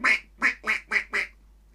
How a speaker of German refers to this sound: Die Ente, genau, das ist die Ente. Auch da gibt es verschiedene Enten.